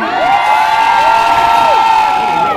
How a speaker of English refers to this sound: Come on, losers. I want to hear you scream.